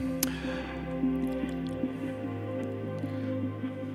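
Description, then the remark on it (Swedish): Water pours steadily into a glass for several seconds, a continuous splashing stream with a faint ringing tone and small gurgles and drips, no voices present. “Och lite vatten till det tänkte jag skulle slå till med.”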